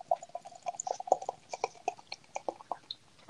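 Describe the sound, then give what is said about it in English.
Freshly opened Five Summers American Pale ale, five percent, poured into a glass, a quick run of irregular glugs and bubbly pops with a faint fizz underneath, no voices. “pouring a bit quicker now.”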